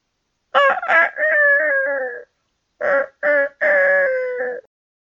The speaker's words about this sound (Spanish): Y como para no dejar dudas, tío gallo saltó a una roca cercana, batió sus alas y cantó.